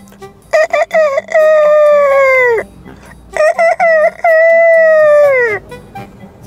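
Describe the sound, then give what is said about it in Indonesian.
A rooster crows twice in the morning in close succession, each call opening with a few short clipped notes before a long, loud, drawn-out tone that drops at the end. “Di pagi hari, Ayam telah berkokok pertanda hari sudah pagi.”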